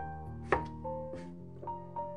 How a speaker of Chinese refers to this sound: 他耐心地切得细细的